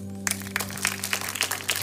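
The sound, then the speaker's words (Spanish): An audience breaks into brisk, dense applause given to God during a sermon, starting abruptly and lasting under two seconds, over a steady low electrical hum; no one speaks. “Dar aplauso a Dios.”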